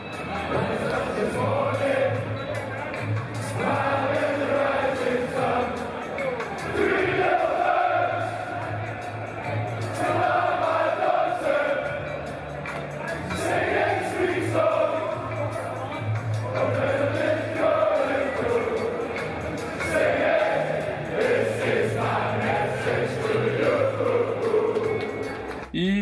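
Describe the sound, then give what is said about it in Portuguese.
A large crowd of football fans sings a song together at the top of their lungs in a loud, sustained chant, many voices blending into a wavering melody that rises and falls for the whole stretch with a steady low rumble beneath. “Depois toda a torcida ali se entrou no clima da música, começaram a cantar e ficaram ali numa boa, festejando, cantando.”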